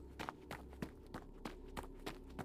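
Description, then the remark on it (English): Quick, regular footsteps pound along at a running pace as a person runs away from a house, each step a sharp thud over a steady low background hum, with no voices. “And my legs started to move, but I ran in the other direction. I ran away from the house.”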